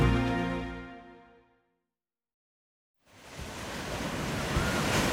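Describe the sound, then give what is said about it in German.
A fading tonal sound and a short silence give way to strong, steady North Sea wind at the Dockhof harbour in Husum, Germany, as light rain begins. A broad rushing roar fills the last two seconds without any voices. “Und im Hintergrund hören wir wahrscheinlich den Nordseewind.”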